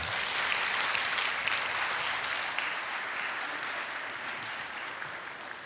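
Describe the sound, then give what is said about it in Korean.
A church audience claps steadily for nearly six seconds to welcome a pastor coming up to preach, a dense, even wash of many hands with no voices, fading only slightly toward the end. “큰 박수로 환영하겠습니다.”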